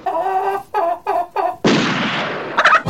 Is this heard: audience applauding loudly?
no